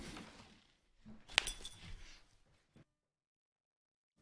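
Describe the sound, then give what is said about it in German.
A single bright clink of glasses of beer from the Rosenbrauerei Pössneck touching in a toast, clear, followed by soft handling noise and a faint knock before silence. “Und ich bin so froh, mit dir jetzt von der Rosenbrauerei Pössneck ein Bier zu trinken. Prost!”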